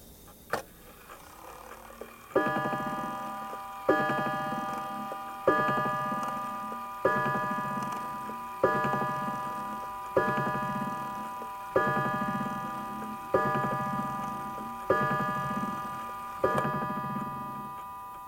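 A mantel clock, recorded with a Nagra 4D tape recorder and an AKG C61 microphone, ticks steadily while a ringing chime strikes about ten times at an even, unhurried pace, each note lingering and overlapping the next. No voices.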